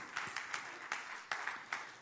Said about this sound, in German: Danke für die 5, 6 Klatscher.